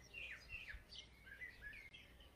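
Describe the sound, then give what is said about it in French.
A blackbird sings a string of fluid, whistled phrases, rising and falling notes in quick succession, heard fairly softly over a low background rumble with no voices. “Mais ce petit enfant qui entend le son de ce merle pour la première fois s'émerveille,”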